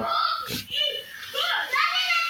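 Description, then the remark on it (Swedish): Two children at home chatter and call out continuously in high-pitched voices in the background, lively and fairly loud, with overlapping squeals throughout the short stretch. “har vi lite extra medlemmar med där bak”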